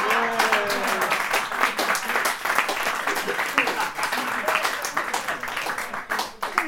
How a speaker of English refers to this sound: Thank you clapping.